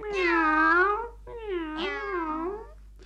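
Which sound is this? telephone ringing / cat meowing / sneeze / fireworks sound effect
cat meowing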